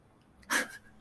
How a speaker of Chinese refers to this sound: 我家狗现在睡到会打呼，所以如果听到打呼的声音，那是我家狗的声音。